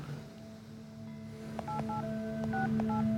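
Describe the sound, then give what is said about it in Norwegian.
Several short keypad tones beeping in quick, slightly uneven succession as the phone number of a district court is dialed, over a steady low hum, with no one talking. “Martin taster nummeret til tingretten.”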